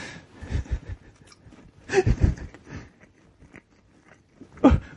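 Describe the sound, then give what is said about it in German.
A pet chews and eats food, with wet smacking and crunching bites in irregular bursts and short pauses between them, no talking. “Herr Snyder frisst.”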